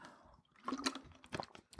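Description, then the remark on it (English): A quiet sip of water: brief wet slurping and swallowing noises, a couple of soft liquid gulps with small mouth sounds, no talking. “Um, so I'm gonna take a drink of water.”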